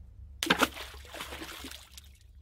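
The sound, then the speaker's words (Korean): A sudden, heavy splash as a person falls into the sea at night, followed by a couple of seconds of churning and sloshing that gradually fades away; no voices. “그러던 중 물에서 큰 고기가 물 밖으로 뛰는 듯한 소리를 듣게 된다.”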